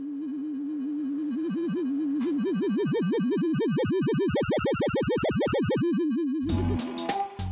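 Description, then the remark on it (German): The sonified oscillation of a ring laser that measures the Earth's rotation, heard during an earthquake: a steady electronic tone with harmonics begins to warble, its pitch swinging wider and faster in a deep wavering vibrato before settling, then a burst of noisy clatter cuts in at the end. “Die Schwingung des Lasers kann man wie bei der Gitarre auch hören. Das ist ein Erdbeben.”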